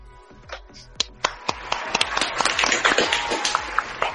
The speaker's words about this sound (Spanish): ¿Y quién mejor? Y un fuerte aplauso para Lea Caballero.